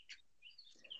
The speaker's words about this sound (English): I can hear the birds in the background, by the way.